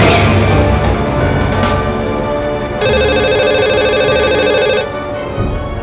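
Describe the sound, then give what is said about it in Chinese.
The telephone in a room rings in one sustained, buzzy burst of about two seconds, bright and fairly loud, over a steady low humming background with no voices. “这时门外没了声音，房间的电话却突然响起。”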